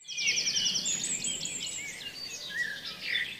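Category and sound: bird, birds chirping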